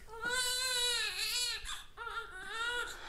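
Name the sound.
baby crying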